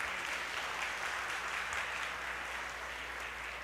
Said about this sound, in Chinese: 有没有第一次啊？好，有一位，我们也请你站起来，我们热烈掌声来欢迎。